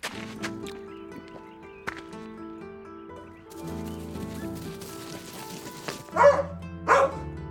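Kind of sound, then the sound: animal, small dog barking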